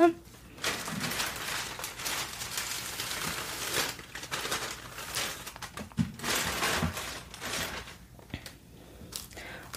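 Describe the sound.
Continuous crinkling of a shopping bag as something is packed into it, with irregular rustling bursts and a soft whispering voice underneath.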